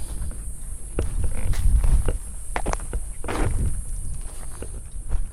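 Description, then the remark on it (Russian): Footsteps of a person walking on a lake's eroded, exposed ground layer where bones lie on the surface crunch over dry, gritty sand at a steady walking pace, each step a crisp scrape with a soft low thud, set against faint outdoor background hiss. “Я сейчас по нему иду ногами.”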